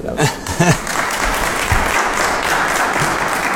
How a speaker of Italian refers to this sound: e l'applauso ci sta tutto.